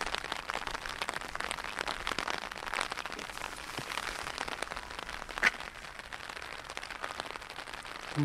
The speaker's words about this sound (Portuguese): Daqui a pouco a gente vai chegar à fronteira e a chuva está apertando.